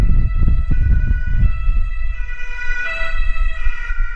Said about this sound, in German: Jetzt kommt auch noch Wind und Feuerwehr.